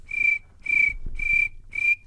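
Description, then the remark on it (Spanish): A person on a radio show imitates a cricket with four evenly spaced, high-pitched whistled chirps, each sustained about a third of a second, over a faint low rumble. “que es una especie de grillo.”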